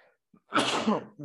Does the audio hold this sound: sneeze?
yes